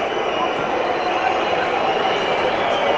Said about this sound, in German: Und die Pfiffe. Hat er mal in Freiburg gespielt, dass den hier keiner, dass die alle hier so auspfeifen. ja, die VfB-Fans sind nicht so glücklich.